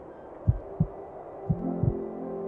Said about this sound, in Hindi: bunker में हल्की सी आहट भी जोर से सुनाई देती थी और अगर कहीं ये आहट बंकर के बाहर से आई तो दिल की धड़कनें एकदम तेज हो जाती थी